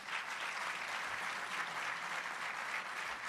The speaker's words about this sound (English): let's give him a nice round of applause.